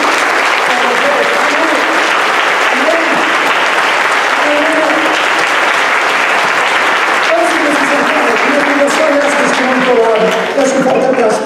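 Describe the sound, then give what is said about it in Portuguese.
A large audience claps steadily and loudly for several seconds in applause to the Lord, a dense, sustained wash of applause with scattered voices calling out beneath it. “Dá um aplauso ao Senhor.”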